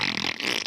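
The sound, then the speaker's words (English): A short, wet, raspy fart-like pooping noise, a single burst of sputtering sound lasting under a second, fairly loud, with no talking over it. “That's the sound of a poop.”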